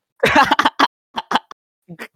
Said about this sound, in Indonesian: Tiap tiap batuk, tiap batuk ini, Cok. Tiap batuk apa namanya? Sakit organ dalam anjing.